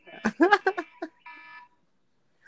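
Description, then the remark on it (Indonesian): A quick run of sharp, ringing bursts gives way to a short, steady electronic buzz, like an alarm going off, then quiet before a brief sound at the end. “Lu alarm.”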